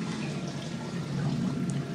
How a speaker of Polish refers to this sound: a następnie już po nalaniu do szklanki, tuż przed wypiciem, po prostu świadome picie wody